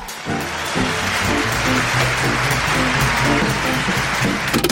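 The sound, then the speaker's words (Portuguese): A short burst of crowd applause from a live audience, a broad hiss of clapping that quickly runs under the opening notes of the next song, with no pause between them. “E logo emenda a próxima música, praticamente não dando tempo para a plateia aplaudir.”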